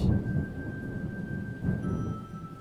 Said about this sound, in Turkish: her şimşeğin ardından sanki davul çalınıyormuş gibi göklerden güm güm sesler geliyormuş.